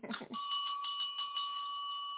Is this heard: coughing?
no